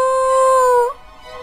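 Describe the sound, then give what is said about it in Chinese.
A hunting dog lets out one short howl, a steady, fairly high tone held just under a second before it bends up slightly and cuts off, leaving quiet. “猎人赶紧带着他的猎狗去寻找。”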